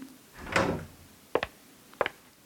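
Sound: door being pushed open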